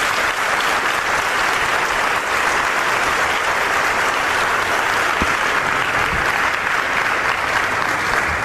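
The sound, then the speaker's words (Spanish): Sustained applause from a large crowd at a Catholic Mass, given for the Virgin Mary on the feast of the Visitation, a dense, steady wash of clapping that stays loud and even for the full length with no voices standing out. “Dele un aplauso a la Virgen María.”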